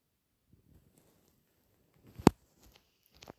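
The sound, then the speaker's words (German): Two sharp, short clicks, like tapping through a game menu, spaced about a second apart against a quiet background with faint low rustling. The first is noticeably louder. “Ich klicke gerade ein bisschen durch.”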